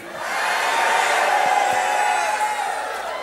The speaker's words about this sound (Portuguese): Você pode dar um grito aí bem alto aí.